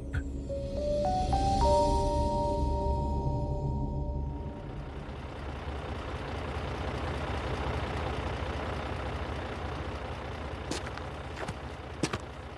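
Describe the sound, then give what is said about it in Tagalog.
A jeepney's diesel engine rumbles and revs up as it is about to leave, rising in pitch over the first few seconds, then settles into a steady, loud idle with a couple of brief sharp clicks near the end. “Halika na, taalis na tong jeep.”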